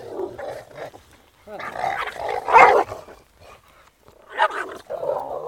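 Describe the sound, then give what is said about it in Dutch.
A small dog on a walk barks and yaps excitedly in repeated bursts at four other dogs passing by, with some growly tones mixed in, while people talk. “We komen nu even ja. vier andere honden tegen.”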